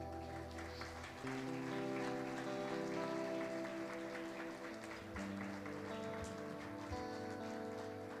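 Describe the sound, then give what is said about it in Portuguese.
A church audience applauds the Lord steadily for several seconds during a service, a dense crackle of many hands clapping, with sustained keyboard chords playing underneath and no one speaking. “Aplauda ao Senhor, queridos.”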